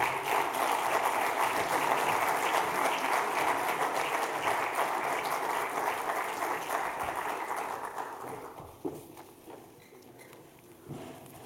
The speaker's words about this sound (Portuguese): E, portanto, pedi então uma salva de palmas para o Dr. Rui Rio.